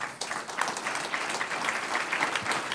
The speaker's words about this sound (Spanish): Un aplauso a Dios.